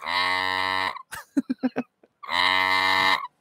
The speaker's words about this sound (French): Alors, ceux qui n'auront pas vu ma vidéo sur Instagram, je voulais vous faire voir le, le, distributeur et je voulais juste vous faire écouter le bruit du distributeur et vous allez me dire à quoi ça vous fait penser.